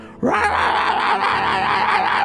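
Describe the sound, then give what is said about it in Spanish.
A person's voice imitates the harsh, demonic screams of an aggressive male dog barking on its chain while being walked: one sustained, loud, strained howl after a brief quiet start, wavering in pitch for about two seconds. “Entonces yo le, recorto la cadena, o sea, le, le abro la cadena, pero él ladra y pega unos gritos demoníacos”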